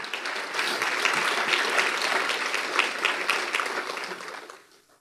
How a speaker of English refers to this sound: You should clap right there.